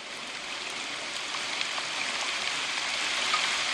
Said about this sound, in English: Uh oh, it's raining.